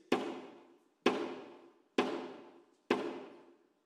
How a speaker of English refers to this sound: And then in the back of the room, right before sunrise, there would be a knock on the back door. Imagine these big, giant wooden doors, and you would hear this.